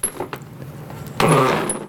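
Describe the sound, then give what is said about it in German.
A chair scrapes harshly across the floor as someone stands up from a table, a loud grinding rasp that starts abruptly and drags on for almost a second, after a few faint clicks and rattles. No one speaks. “Mein Vater ist ähm, mit schnarrendem Stuhl, ich mach's mal vor.”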